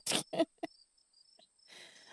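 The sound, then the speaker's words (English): Faint, high bird chirps flicker in the background of a recording made at home, after a few short rustling bursts, with a thin steady whine running underneath and a soft hiss at the end. No one speaks. “Uh, anyway, uh, so I apologize for like the birds, the microphone, the other background noises that happen um, in a home that is um, bursting with love, we'll say.”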